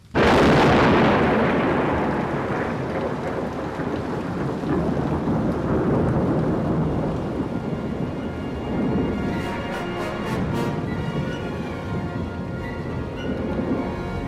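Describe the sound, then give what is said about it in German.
A loud thunderclap bursts out and then rolls on in a long, deep rumble, with steady rain hissing underneath and a few faint crackles later on. “Wenn es blitzt und donnert, muss man sich als Wanderer schnell in Sicherheit bringen. So ein Gewitter kann sich gewaltig und gruselig anhören.”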